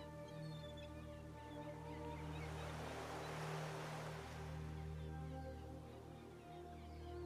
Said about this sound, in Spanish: Tal vez puedas escuchar las olas rompiendo contra la orilla